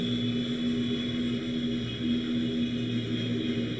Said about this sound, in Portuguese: Nossa, tá dando um buzinaço aqui.